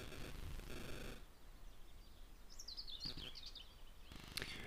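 Soft rain that has just begun patters, heard from indoors, swelling into denser hissy bursts at the start and end, while a bird chirps faintly in the middle. No one speaks.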